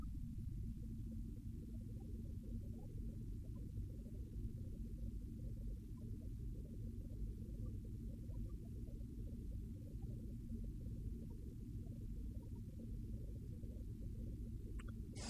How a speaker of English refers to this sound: But train your mind now to recognize this option of simply dropping into the experience, this very real, ordinary experience of sitting hearing the sound of the blower, feeling the buttocks against the chair, the cushion.